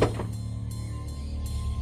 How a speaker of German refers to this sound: Sekunde. Ich öffne die Tür.